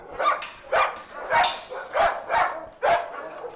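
Dogs barking repeatedly in their cages at a dog shelter, about six sharp barks at an uneven rhythm, with a faint echo and no voices.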